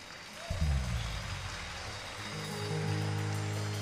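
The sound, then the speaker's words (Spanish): A church audience applauds God during a service in a dense, steady wash of clapping that swells after a brief start and keeps going, with low sustained musical tones humming underneath. “Sí, denle un aplauso a Dios, sí.”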